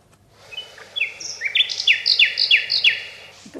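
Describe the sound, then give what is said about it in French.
A nightingale sings a quick phrase of bright, sharp notes, a rapid run of repeated whistled chirps building in a steady rhythm, clear, with no voices present. “formule de Rossignol, vous avez juste entendu c'est tout.”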